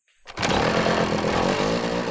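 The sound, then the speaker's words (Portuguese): A motocross motorcycle engine roars to life and revs loudly and steadily, a buzzing two-stroke whine that holds for a couple of seconds with a slight rise in pitch. “Depois da primeira semana, ele comprou uma moto de motocross.”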